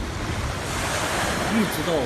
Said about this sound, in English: And he arrived at the construction site for the first time on August 8, 2022. The first time I came to the Xi building site, I saw a rough sea.